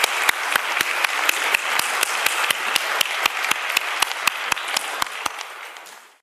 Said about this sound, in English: I also want to really give a big thank you to, to our four speakers. I mean, they were just amazing. So if we give them another round of applause, folks.